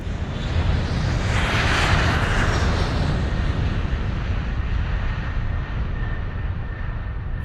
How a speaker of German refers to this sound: Und ähm, dann lass uns doch in unseren Jet rübersteigen.